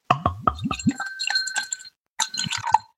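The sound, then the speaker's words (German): A beer bottle is opened with a few dull knocks and a quick clink, then beer is poured into a Dutch glass in a steady glassy trickle with ringing tones, with a short pause before more pouring. “Und ich mache mal die Flasche auf. Gieß das ein.”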